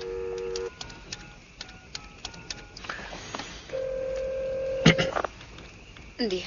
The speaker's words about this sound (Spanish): Descuelga el teléfono.